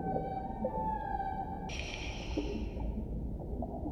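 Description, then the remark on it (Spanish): In a music video teaser, eerie, drawn-out howls wail over a low, murky rumble. One tone slides slowly before a brighter, harsher cry swells in and fades away after a second or so. No one speaks. “Sonidos así muy tétricos, susurros. Y como si hubiese algo en el agua. Ella dice, yo soy, tú eres Verónica. Aullidos.”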